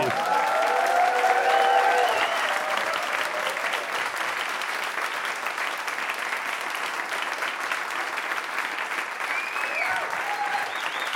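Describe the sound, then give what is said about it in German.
A live audience at a filmed live recording applauds steadily for about eleven seconds, a dense, sustained wash of clapping with a few whoops and cheers rising over it near the start and end. “Ja weil wir hier eben live sitzen und ein fantastisches Publikum dabei haben. Das hat man eben schon einmal gehört, aber wollen wir es nochmal hören?”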